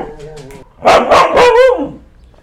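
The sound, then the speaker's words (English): A dog lets out a quick run of four loud, sharp barks, preceded by a softer, higher whining sound. “What's life like with three dogs?”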